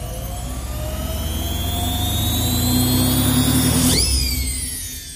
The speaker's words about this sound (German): Gerade wollten sie vor Erschöpfung aufgeben, als die Puppenwaschmaschine verkündete. Der Schleudergang ist jetzt erreicht.